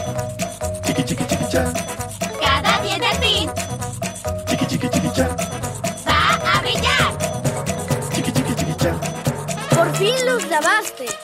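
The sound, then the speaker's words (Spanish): A Spanish-language children's cartoon toothbrushing song, lasting two minutes to match the recommended brushing time, plays loud, with bright childlike singing over a bouncy, jingly backing that runs continuously throughout. “Tienen una canción que dura dos minutos, que es el tiempo recomendado de cepillado dental.”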